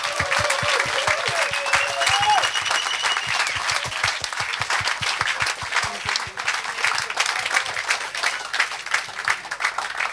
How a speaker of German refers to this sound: Gratulation. Macht mal noch einmal Klatschen für die Hubs Queer Basel.